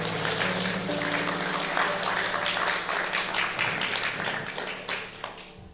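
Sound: audience applause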